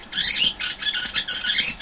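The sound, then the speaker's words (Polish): Magnetic audio tape whirs through at speed, giving a shrill, warbling chatter of squeaky bursts that pulse rapidly and continuously for about two seconds, fairly loud, with no talking. “Ten dźwięk oznacza, że przebijamy taśmę.”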